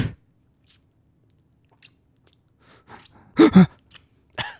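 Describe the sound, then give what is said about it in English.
A voice imitates fingers being licked: a breathy exhale, then scattered soft, wet mouth clicks building to two loud slurping smacks and a final short smack, with no talking. “in the middle of the night, you'll just hear like the whispered, echoed sounds of like fingers being licked, just like.”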